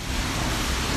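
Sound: rain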